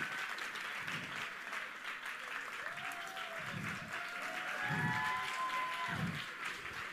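A crowd claps steadily in a dense, continuous burst of applause, with a few thin whistles or cheers rising over it and low murmurs pulsing underneath.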